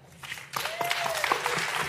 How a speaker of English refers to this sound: That is a group of super eloquent people. Let's give them all a hand.